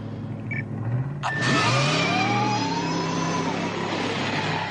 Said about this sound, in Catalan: Y dispara el coche a 140 millas por hora. Si mis cálculos son correctos, cuando esa belleza llegue a 140 kilómetros por hora, vas a ver algo acojonante.